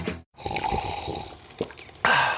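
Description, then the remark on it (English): Liquid trickles and drips, then a loud, airy slurp of a first sip of morning coffee cuts in at the end. No one speaks. “That's not just the sound of that first sip of Morning Joe.”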